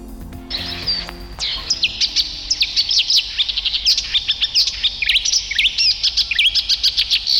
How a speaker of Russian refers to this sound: Ну, это камышовка.